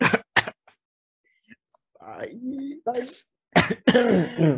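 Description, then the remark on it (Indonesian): A couple of sharp coughs burst out, followed by a pause, then throaty clearing and more coughing mixed with a voice as someone talks through it. “Ntar gue batuk dulu.”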